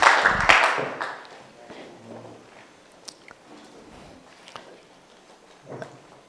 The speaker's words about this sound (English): Clap your hands together for the Lord as you take your seats.